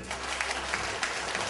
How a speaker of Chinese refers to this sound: 好，给我们所有伟大的、最有爱心的掌声鼓励。